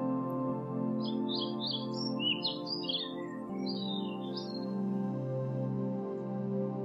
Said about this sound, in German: Draußen hörst du die Vögel zwitschern.